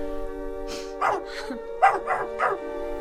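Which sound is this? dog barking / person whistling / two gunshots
dog barking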